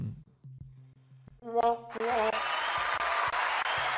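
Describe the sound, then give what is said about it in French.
A few low tones and a brief harmonic swell give way to a sudden, loud wave of crowd applause and cheering that fills the last two seconds steadily. “la foule est en délire.”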